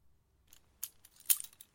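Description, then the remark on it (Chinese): Handcuffs clink and rattle as a person puts them on: a few light metallic jingles, with two sharper bright clacks standing out, brief and fairly quiet with no voices. “那么就请您乖乖的到我刚刚坐的这把椅子上坐好吧，顺便自己把手铐也戴上。”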